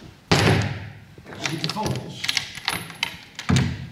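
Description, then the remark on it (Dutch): A wooden hatch shutter over a long window of a bird hide is pushed open with a solid thump, followed by creaks and light clattering, then a second heavy knock as it settles; quiet voices murmur. “Even dat luik.”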